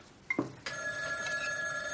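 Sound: telephone ringing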